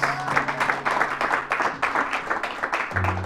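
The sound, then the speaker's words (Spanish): A crowd claps hands in praise of God, a dense, steady patter of many overlapping claps, fairly loud, with a low sustained tone underneath and brief voices mixed in. “Alaben a Dios con palmas y alabanzas.”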